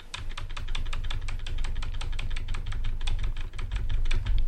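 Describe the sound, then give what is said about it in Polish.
Rapid, steady clicking of computer keyboard keys, roughly five or six presses per second, fairly loud over a low background hum, with no voices, as the Windows key and the letter C are pressed. “No i teraz naciskam klawisz Windows i literę C.”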